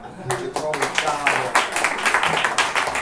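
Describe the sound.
A group applauds the band's drummer with steady, dense clapping that fills the whole stretch, while voices call out and talk over the claps, especially near the start.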